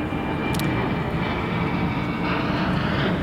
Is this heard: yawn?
no